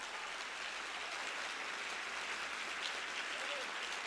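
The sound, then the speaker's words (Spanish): An audience applauds the rock steadily for about four seconds, a dense, even wash of many hands clapping together without pause. “Pero como tengo la roca, alguien que pueda aplaudir a la roca.”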